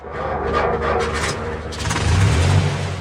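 A farmer climbs into his tractor near Homberg in the Schwalm-Eder district, Germany, and starts it; the diesel engine turns over, its low rumble building into a steady, loud idle after a rough, clattering beginning.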